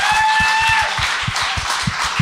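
An audience applauds steadily, a dense wash of many hands clapping with a few sharper individual claps standing out, while a faint high whistle-like tone fades out early on.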